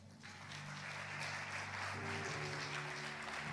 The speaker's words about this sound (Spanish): Un aplauso a esta emprendedora.